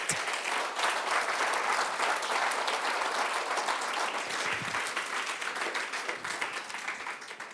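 Sustained applause from a large audience fills the room, a dense wash of many hands clapping steadily at fairly high volume, tapering slightly toward the end, with no one speaking over it.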